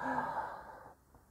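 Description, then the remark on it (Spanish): A single deep, breathy intake of air, fairly loud, lasting under a second before dropping to a near-silent pause as if the breath is being held. “Él viene y toma aire”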